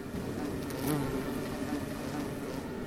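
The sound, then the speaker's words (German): Bumblebees collecting nectar buzz steadily around bee balm (Monarda) flowers in rows of plants, with the microphone held in among them: a continuous low droning hum with slight swells as they move, no voices present. “Ja, hier hört man und das Brummen der Hummeln an der Indianernessel, der Monade.”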